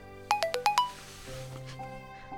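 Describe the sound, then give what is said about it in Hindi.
A phone message notification tone plays as a text message arrives: five quick, bright chiming notes in a rapid melodic run, clear, then fading into a faint low background hum. “तभी उसको गौरव का मैसेज आता है”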